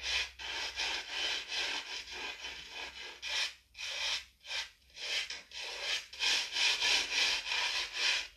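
Rex, a pet, having its back and hips brushed: a steady run of scratchy, bristly strokes at roughly two per second, with a few brief pauses, and no voices.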